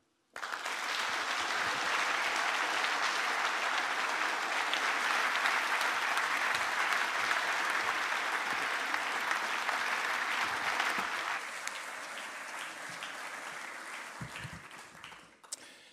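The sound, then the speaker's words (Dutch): A crowd in The Hague applauds steadily to welcome the German Minister of Economic Affairs and Energy, Peter Altmaier, a dense wash of clapping that holds strong for about eleven seconds, then eases slightly and thins out before fading away at the end. “Ik vraag graag uw aandacht en uw applaus voor de Duitse minister van Economische Zaken en Energie, Peter Altmaier.”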